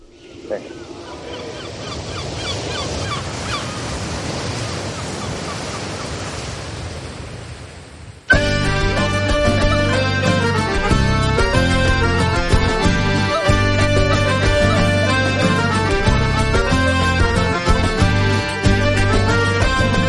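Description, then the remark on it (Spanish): A soft wash of surf-like noise for about eight seconds, then an abrupt, loud new arrangement of Dum Pater Familias, the oldest chant of the pilgrims to Compostela, with a sustained low drone and a steady rhythmic pulse. “Y pasamos de, una canción nueva a, a una revisión del, canto más antiguo de los peregrinos a Compostela, que es Dum Pater Familias.”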